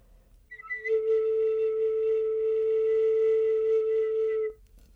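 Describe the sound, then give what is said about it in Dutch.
A clay whistle blown in one long, steady low note lasting several seconds, preceded by a brief higher chirp, then cut off cleanly; fairly loud, with no talking. “Eh, en die gaat veel eh, lager klinken dan bijvoorbeeld een, een, deze grijs met wit gemengd.”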